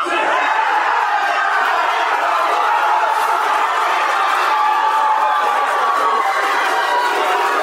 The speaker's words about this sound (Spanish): ambientado con los ruidos del bar donde lo estaban viendo